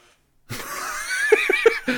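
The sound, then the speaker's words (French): A chair creaks with a drawn-out, wavering squeal that starts abruptly after a brief silence, broken by several quick rhythmic pulses near the end. No one speaks. “c'est ma chaise, c'est pas mon dos.”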